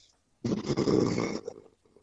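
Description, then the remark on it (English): A single deep, rough, low-pitched growl from an unseen large creature no more than 15 yards away rumbles loudly for about a second, then tapers into a few faint, scattered rustles and huffs. “It was the most bone shaking growl I've ever heard in my life.”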